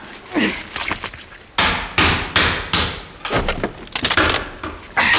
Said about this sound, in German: Abi steckt da drin fest. Warte. Ah, hier, der Hammer.